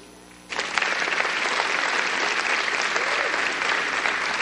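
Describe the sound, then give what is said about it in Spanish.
A crowd bursts into sustained applause for God, at the speaker's call during a Spanish-language talk on God's creation. It follows a brief moment of quieter sound, and the dense clapping holds steady and loud until the end. “Denle un aplauso.”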